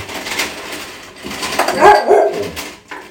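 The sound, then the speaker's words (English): An old dog barks a few times in quick, sharp bursts, the loudest yelps landing near the end, with a bit of whiny yipping mixed in and no talking. “this freaking dog.”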